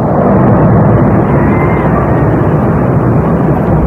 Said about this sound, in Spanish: Y en La Palma el volcán mantiene su actividad. Así suena hoy, así suena en estos momentos.